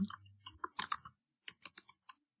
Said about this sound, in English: Typing, typing, typing. Click, click, click.